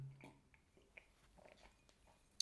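Someone quietly sips water from a coffee mug, with soft slurping and swallowing noises, a few small mouth clicks, and one sharper tap near the end.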